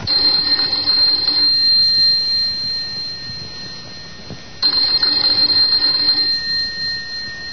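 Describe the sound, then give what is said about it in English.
A loud electric doorbell of an apartment door rings in two long, sustained bursts, a steady metallic jangle that stops briefly and then starts again. No voices. “Let's begin this tale with the ringing of a doorbell.”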